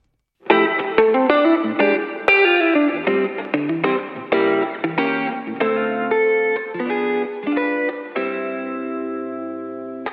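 A pop song plays, an instrumental stretch of bright, layered chords struck in a steady rhythm with effects-heavy, slightly distorted tones, loud and continuous with no singing or talking.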